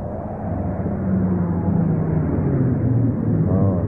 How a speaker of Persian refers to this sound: فکر میکنم رسیدیم کامیون وایستاده